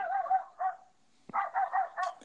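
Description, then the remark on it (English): A small puppy yaps in quick, high-pitched bursts, a few barks, a brief pause, then a rapid run of yips. Fairly loud, with no one talking. “Hey, man, it's the pup.”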